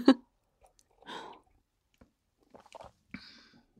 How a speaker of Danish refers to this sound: jeg får lige sådan en tår ægte skorpionkaffe, vil jeg kalde den